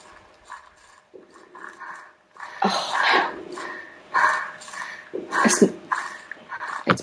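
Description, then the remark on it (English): Heavy, breathy panting sound effect from a horror game, in quick repeated bursts, soft at first and then growing louder and harsher, with a faint steady hum underneath and no talking. “panting. That's not actually me panting, that's from the game.”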